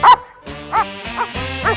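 A dog barks in a quick series of four or five sharp, loud yaps, with brief pauses between them and no other sounds around.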